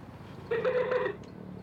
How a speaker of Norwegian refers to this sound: Hva er det du sier for noe, katten min?